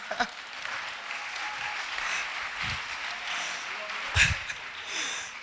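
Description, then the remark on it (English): A crowd applauds a preacher's interpreter steadily for several seconds, a dense wash of many hands clapping at a moderate level, with a few sharper bursts and a brief louder swell near the end. “Clap for my interpreter.”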